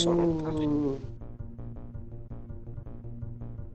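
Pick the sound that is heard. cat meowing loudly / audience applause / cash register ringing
cat meowing loudly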